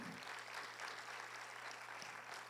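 An audience breaks into steady, sustained applause for the King (God), a dense wash of many hands clapping at an even level throughout, with no voices standing out.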